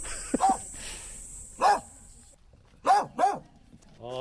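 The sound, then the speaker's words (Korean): The dog Cornell barks loudly four times at uneven intervals, the last two in quick succession, over a faint steady background hiss. “아이고 우리 코넬 참 소리 우렁차네.”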